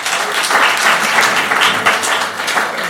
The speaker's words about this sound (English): let us just give him a, a round of applause.